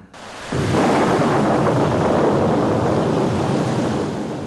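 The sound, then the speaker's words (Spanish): A stormy roar at night surges in after a brief quiet and holds steady, a dense wash of rushing wind with a deep rumble underneath. No voices are heard. “Pero el caso es que aquella noche, en medio de la tormenta, se paró frente a mí con su aire de aristócrata y me tendió la mano.”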